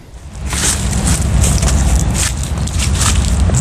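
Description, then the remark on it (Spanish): Steady footsteps crunch through a bed of dry leaves fallen from the trees in a botanical garden, each step a crisp, rustling burst at an unhurried walking pace, over a low outdoor rumble of trucks passing on the A12 motorway. “Lo que escuchan son las hojas secas de los árboles que han caído sobre el suelo de este lugar.”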